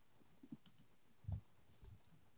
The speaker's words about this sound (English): I get to do that thing where I roll a bunch of dice at once and make a loud, loud sounds doing it. Always feels so good doing that.